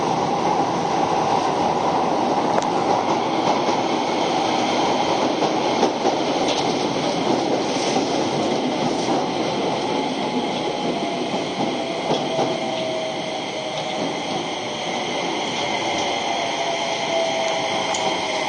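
A Keio 5000 series train on the Motoyawata to Hashimoto run, a semi-express bound for Hashimoto, runs steadily with a loud, continuous rumble and broad rushing noise, a sustained high whine and faint rhythmic wheel clatter, with no voices throughout.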